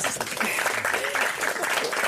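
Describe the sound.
An audience applauds steadily for about two seconds, a dense, even wash of many hands clapping, with a few voices faintly mixed in.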